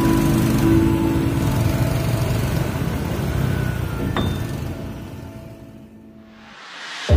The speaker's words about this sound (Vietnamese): qua phải qua phải cô bác ơi nhường bớt đường cho bên trái đi nữa đi vậy sao mà người ta đi được kiểu này kẹt cứng ngắt sao mà về Trời ơi má cái đường nhỏ xíu vậy mà nguyên chiếc xe hơi đi vô rồi sao ta đi